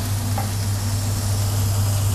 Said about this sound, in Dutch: De garnalen worden... Oeh, freaking hell, het spettert.